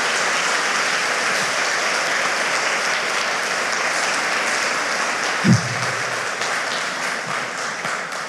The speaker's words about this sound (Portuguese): Então, eu vou pedir para você dar mais uma salva de palmas, mas agora é para Jesus mesmo, tá?